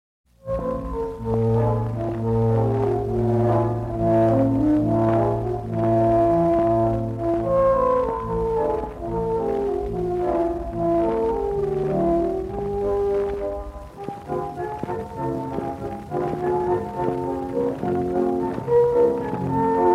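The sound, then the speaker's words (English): An old, scratchy reference recording made by the Choralcelo Company in 1942 of a Choralcelo playing sustained, organ-like chords and a wandering melody, with a steady low bass drone that drops away partway through, all continuous without any voices. “No working Choralcelo now exists, and although contemporary reports say that its sound was exquisite and ethereal, all we have to judge it by is this scratchy and rather nondescript reference recording made by the Choralcelo Company itself in 1942.”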